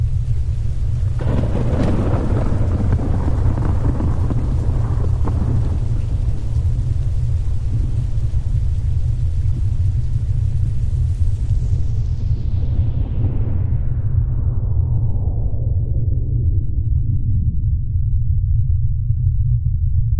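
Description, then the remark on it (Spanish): A massive atomic bomb explosion in the direction of Seoul erupts and rolls into a deep, continuous rumble, loud and heavy throughout, its crackling upper edge gradually dying away over twenty seconds while the low roar persists. “La de una bomba atómica.”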